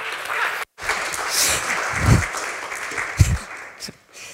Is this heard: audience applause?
yes